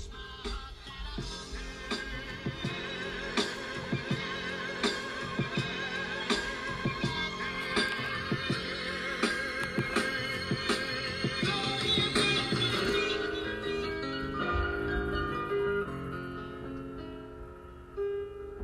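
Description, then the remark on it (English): A hip-hop instrumental plays on its own, with steady punchy drums, a repeating melodic loop and dense layered harmonies at a consistent, fairly loud level. There is no singing or rapping. “Listen to this … instrumental.”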